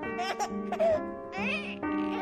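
A newborn baby cries in a series of close, high-pitched wails with short breaks between them. The cries rise and fall in pitch, and no one else speaks.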